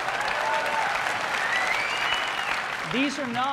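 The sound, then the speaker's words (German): A crowd applauds loudly and steadily as Steve Jobs unveils the Apple iPhone on stage, dense clapping mixed with whoops and cheers throughout, and a voice rises briefly near the end over the ovation. “Die Menge tobt.”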